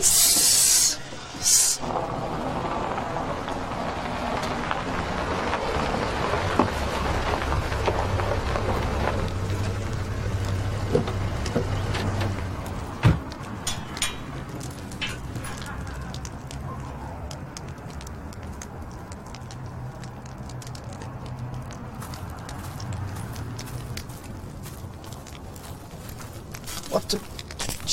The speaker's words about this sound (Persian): آتیش برای چی روشن کردی؟ ها؟ چیه میسوزونی اینا؟ نه با شما این س... نکن این سند عباس آباده که اینو چرا میندازی این تو؟